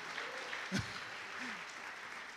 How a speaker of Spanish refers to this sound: Son bien lindas las mujeres, ¿verdad? Denle un aplauso a las mujeres que están aquí, por favor.